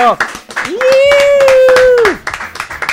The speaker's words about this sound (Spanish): Sí que sí muchachos, el aplauso.